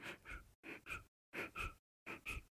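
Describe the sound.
A voice imitates the faint breathing of a sleeping baby girl: four quiet pairs of short, soft, airy breaths, each pair separated by a brief silence, gentle with no talking.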